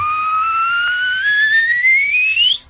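A person whistles one long, steady note that slides upward in pitch for nearly three seconds, loud and close, with a faint low rhythmic thump underneath.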